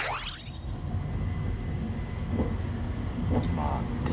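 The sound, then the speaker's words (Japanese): Steady low rumble inside a moving Azusa limited express train cabin, boarded after changing at Tachikawa, with continuous mechanical drone and faint rattles, a brief higher whine at the start, and muffled voices in the background. “で、特急に乗りましたね。”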